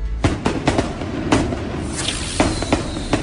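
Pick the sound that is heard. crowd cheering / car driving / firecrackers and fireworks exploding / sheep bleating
firecrackers and fireworks exploding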